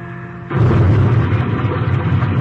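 A plane's engine drone cuts off as it glides toward hills across a river, then a sudden loud explosion as it crashes, followed by a heavy, sustained roar of rumbling blast noise with no voices.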